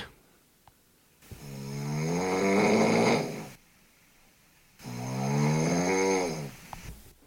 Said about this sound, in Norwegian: Ja, det høres ut som ku som snorker.